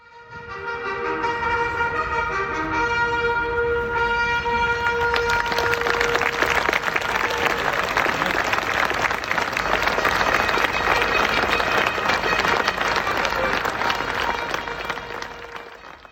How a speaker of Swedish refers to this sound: Och sen, sen tog London ett djupt andetag, pustade ut och Hyde Park bara exploderade i en applåd.